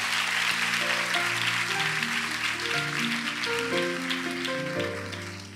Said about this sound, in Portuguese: Mais uma vez, um aplauso. Obrigado.